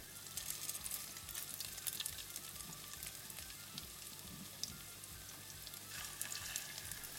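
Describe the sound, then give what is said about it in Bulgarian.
Small walnut-sized meatballs, lightly rolled in flour, sizzle steadily in a frying pan, a dense crackling hiss with scattered pops, continuous throughout with no voices. “Слагам и тях в тигана и пържа.”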